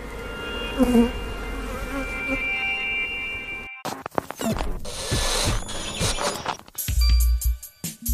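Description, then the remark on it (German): Steady buzzing of honeybees hums through the first half, followed by a busier stretch of clicks, rattles and mechanical clatter, with a low rumble near the end. “Und wenn ihr irgendwo in Gotha das nächste Mal auf einer Blüte, auf eurem Balkon, eine Biene seht, dann ist das vielleicht eine alte Bekannte.”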